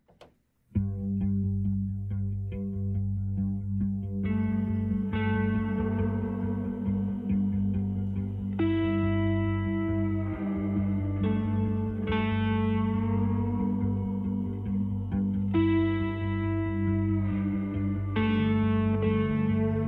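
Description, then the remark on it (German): A music track plays on a radio show, steadily and loudly after a brief silent start, with thick, echoing, effect-laden sustained tones and chords that shift every few seconds. No one speaks. “Ähm, bevor wir die Sendung ganz abschließen und zum Veranstaltungskalender kommen, wie immer, hören wir nochmal ein bisschen Musik.”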